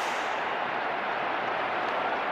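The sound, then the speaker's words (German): A steady, dense roar of a large stadium crowd of Frankfurt football fans cheering the disallowed goal by Modest while the referee team around Martin Petersen confers, a continuous loud wash of many voices that holds evenly throughout without individual words standing out. “Wir hören aber ganz deutlich, die Frankfurt-Fans jubeln über den aberkannten Treffer von Modest.”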